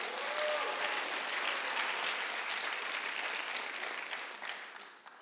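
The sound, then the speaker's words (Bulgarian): An audience applauds as an offering of applause to God, a dense, steady wash of many hands clapping that holds strong for several seconds, then thins and fades toward the end with a few scattered claps. No one speaks. “О, хайде, дай дарение на ръкопляскане на Бога, ако вярваш в това.”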